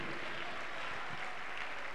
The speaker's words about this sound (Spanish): Un aplauso grande para el Dios Todopoderoso.